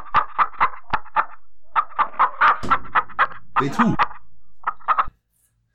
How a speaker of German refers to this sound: Hühnerstall.